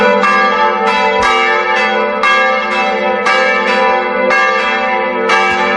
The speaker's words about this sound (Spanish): el caso es que hoy a las 12 del mediodía han empezado las fiestas en las plugas de Franculí y además nos han enviado un vídeo precioso donde están tocando en uno de los campanarios y quiero que escuchéis qué maravilla de campanas.